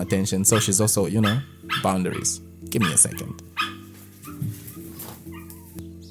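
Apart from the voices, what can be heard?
dog barking and whimpering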